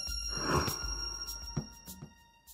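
A telephone rings on a Friday at midday with a steady, high electronic tone that holds throughout, joined by a few short clattering knocks and soft rustles. No one speaks.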